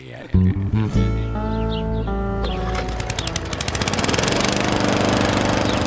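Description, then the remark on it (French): A lawn mower engine starts up abruptly to mow the lawn and runs loud, its droning pitch shifting before settling into a fast, rattling chug that grows steadily stronger. “Ah, excuse-moi, voisin, mais j'ai pas le choix de faire mon gazon.”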